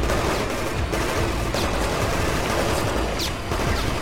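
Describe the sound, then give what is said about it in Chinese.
Machine gun fire from below as a plane takes off rattles on without pause, a dense, loud stream of sharp cracking shots with a heavy low rumble underneath and no voices. “飞机离开了地面，下传来了机关枪射击的声音。”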